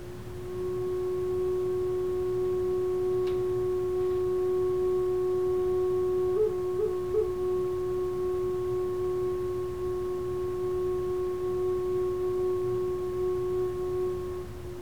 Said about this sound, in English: So I'll play the flute. Listen for the sound of space, stillness within, within the notes within the flute.